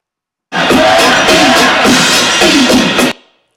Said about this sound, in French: Voilà, pas d'impatience. Le perroquet.